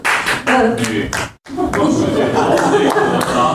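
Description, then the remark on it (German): Audience applause: a dense, steady patter of many hands clapping, loud and continuous, with a brief drop-out partway through before the clapping resumes at full strength. “Also Applaus.”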